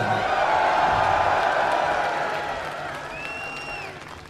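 A large concert crowd roars with cheers and applause as the drummer is introduced, a dense wash of noise that stays loud, then gradually thins, with a few high whistles and whoops cutting through near the end.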